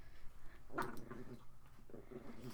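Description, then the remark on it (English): Dogs whimper and growl softly, a brief whiny cry near the start followed by low, rumbling grumbles, fairly quiet, with no one speaking. “Dogs, please relax.”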